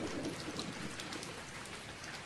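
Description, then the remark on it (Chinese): Steady rain falling through the night in a dense, continuous hiss, with soft patter of drops on surfaces and no voices, holding an even, moderate level throughout. “一夜的雨声说些什么呢？”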